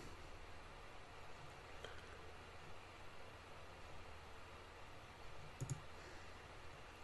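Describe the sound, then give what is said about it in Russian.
A couple of soft computer mouse clicks, spaced a few seconds apart, against a steady low hiss of background noise, with no one talking, as someone clicks the mouse to scroll down through a list of questions. “Вот я кликаю мышкой и иду вниз, да.”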